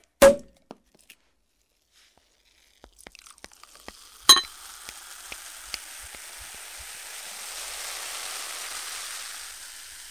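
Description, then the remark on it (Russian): A drink being poured: a couple of sharp clinks and scattered ticks, then a steady splashing, fizzing hiss that swells and holds for several seconds. No one speaks. “Хватит болтать, пора наливать. Наливай.”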